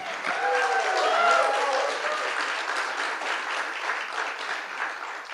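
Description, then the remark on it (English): An audience at a theater in Omaha bursts into sustained applause for a musician, a dense wash of many hands clapping that holds steady for several seconds with a few faint cheers mixed in near the start. “So let's hear it for ….”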